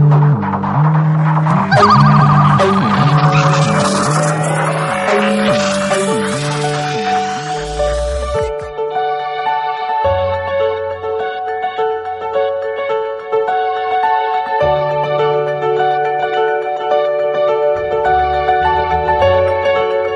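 A mobile phone ringtone melody plays loudly on its own: a busy, bright synth passage with shimmering layers, then a steadier tune of sustained tones over a pulsing low bass line.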